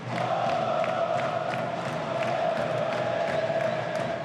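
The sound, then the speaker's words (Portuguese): A large crowd of Vasco fans cheers and chants at the club's open training session at São Januário in a steady, loud roar that fills the whole stretch, with brief sharper bursts like claps or shouts rising out of the din. “O Cruz Maltino abriu o último treino antes do duelo para receber o apoio dos torcedores em São Januário.”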